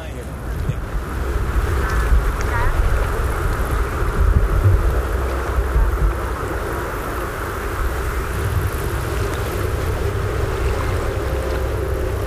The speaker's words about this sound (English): Samen met Park luisteren we naar het geklots van het water, het geruis van de wind en het zachte geknisper van de cicade.